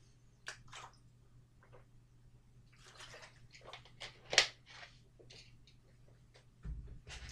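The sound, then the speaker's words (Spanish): Someone takes a quiet sip of water, with soft wet mouth noises and a few small gulps and clicks over a faint steady hum, no talking. “Entonces, eh, vamos con la previa de la Champions, veo un poco, un poco de agua y ya, pasamos con ella.”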